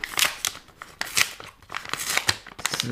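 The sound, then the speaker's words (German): A white paper envelope is torn open by hand without scissors, with a run of short, crisp ripping and crinkling bursts coming in uneven pulses, and no one speaking. “Jetzt auf. Das ist ein weißer Umschlag. könnte man noch wirklich eine Schere brauchen, ne? Nein, das schaffen wir ohne.”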